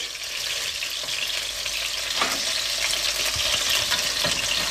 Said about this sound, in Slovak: Takže vybrali sme z panvice cesnak, aby nám teda nezhorel, nezhorkol. Vidíme, že šery paradajky sa pomaly vlastne dusia, de facto opekajú dusia.